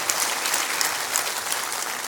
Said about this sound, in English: Would y'all give my dad a hand clap? He was just a, a good man.